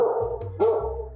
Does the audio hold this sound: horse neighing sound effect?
no